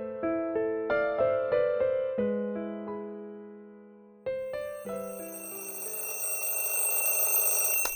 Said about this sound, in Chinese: 闹钟响了，米米从床上惊醒。